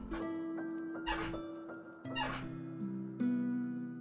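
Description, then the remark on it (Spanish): A chair creaks and squeaks in a few drawn-out, shifting groans, with short scraping bursts between them and no one talking. “Coño, esta, silla como rechina.”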